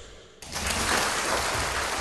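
Audience applause welcoming the day's lecturer, Professor A.H. Riemann, bursts in abruptly after a brief quiet moment, a dense, steady wash of many hands clapping at an even loudness that continues to the end, with no voices.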